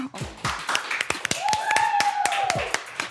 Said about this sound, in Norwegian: Og da kan vi klappe.